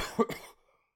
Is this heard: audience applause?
no